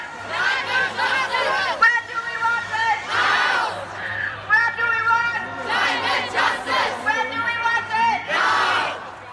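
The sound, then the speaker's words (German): A large Fridays for Future protest crowd in Berlin, last November, chanting and shouting in rhythmic bursts, many voices rising together with cheers, loud and continuous with a steady low hum underneath. “Was wir eben gehört haben, war eine Fridays for Future Demo letztes Jahr im November in Berlin.”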